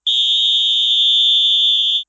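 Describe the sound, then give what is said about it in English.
A halftime whistle blows: one loud, steady, high-pitched blast held for about two seconds with no trill, then stops abruptly. No voices or other sounds accompany it. “We're going to let the whistle blow now.”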